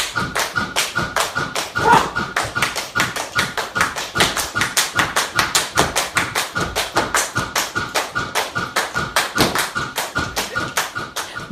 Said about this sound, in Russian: Есть номер даже без музыки, а просто идет э, метроном. Можете представить, как это так, так, так, так, и под это делаешь чечетки